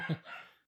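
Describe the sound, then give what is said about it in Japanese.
A single short dog bark or yelp, moderately loud, with a brief whining tail that fades within a second. No one talks over it. “ちょっと今ね犬の声が 多分入っちゃってると思うんだけどまあこのまま無視しましょう行っち行っちゃいましょうもうしょうがないです入ってたら”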